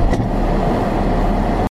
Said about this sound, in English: So he begins to drive away